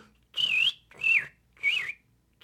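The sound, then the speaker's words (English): A person whistles an imitation of the song of a Western tanager, a red-headed, yellow-bodied bird found in Montana: three short, hoarse, buzzy robin-like phrases separated by brief pauses, each dipping slightly in pitch, with a fourth just beginning. “Um, how about another robinish kind of thing, which is our big eye candy bird. That's a hint in Montana. And it, it does a buzzy robin.”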